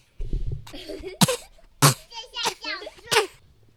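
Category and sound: human body sound, child coughing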